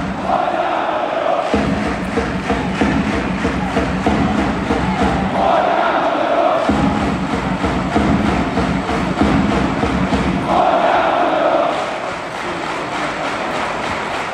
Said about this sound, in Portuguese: É estranho voltar a ver pessoas sem máscara, mas é mais estranho ainda ouvirmos este som que vamos ouvir e que tu trouxeste de um jogo de futebol aqui.